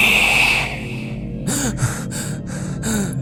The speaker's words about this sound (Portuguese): Acordei às duas da manhã com minha respiração ofegante. Eu me virei no sentido contra a parede, coloquei minhas mãos no meu rosto e respirei fundo.